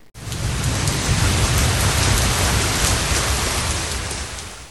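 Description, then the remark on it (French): Steady, dense rain pours down continuously, a broad hissing wash with a low rumbling undertone, fairly loud, with no voices present. “Il s'ennuie à Ivry c'est un jour de pluie, les nuages sont gris.”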